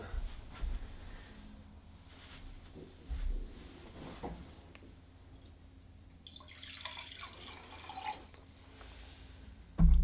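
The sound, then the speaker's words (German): Water drips and trickles, with a few sharper splashes and faint clinks, over a low steady hum; no one speaks. “Ist nur Wasser.”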